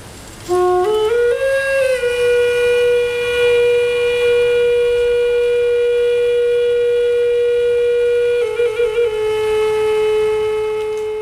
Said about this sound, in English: The, fu- the, flute music under him is by Rahini Gonzalez Inaru, performed at the Oakland Museum of California event, Celebrating Stories, Two Spirit Arts